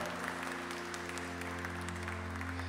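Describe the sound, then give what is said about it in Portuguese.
An audience applauds the word of God after a Gospel reading, a dense wash of many hands clapping at an even level throughout, with a low sustained hum underneath and no talking. “Uma salva de palmas à palavra de Deus palavra de nossa salvação.”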